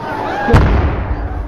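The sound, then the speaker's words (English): A single sharp, booming pop of a tear gas canister being fired, the first of several rounds, cuts through a noisy outdoor background, followed by a low rumbling tail as the ambient din continues. “The sound you hear is tear gas.”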